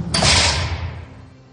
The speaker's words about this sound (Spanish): pero para hablar de los protagonistas de esta historia tenemos que abrir otra puerta, una puerta fría, pero real, una puerta que da acceso a una prisión.